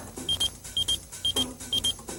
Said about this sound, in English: I just got beeped. I got to make a phone call.